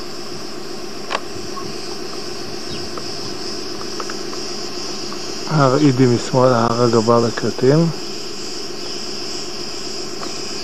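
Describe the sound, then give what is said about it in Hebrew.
A steady, high-pitched insect chirring from a grasshopper, on the descent from Tronos toward Apostoli, runs continuously throughout, with a man's voice speaking briefly over it partway through. “וגם כאן שומעים את החגב המצרצר.”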